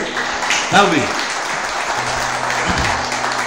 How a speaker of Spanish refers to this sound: Un fuerte aplauso para este modelo.